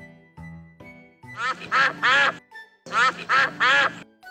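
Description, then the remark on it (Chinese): Four ducklings quacking as they jump in a mud puddle in a garden after rain, in two loud bursts, each a quick run of raspy, nasal quacks, with a short pause between and soft low sounds before they start. No one speaks. “四只小鸭子在泥坑里跳呢。”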